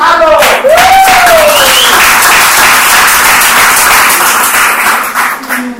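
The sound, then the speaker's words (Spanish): An audience bursts into loud, sustained applause, a dense wash of clapping that holds steady for several seconds, with a rising whoop or cheer cutting through at the start before it gradually tapers. “Vamos a dar un fuerte aplauso a los”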